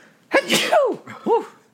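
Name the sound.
sneeze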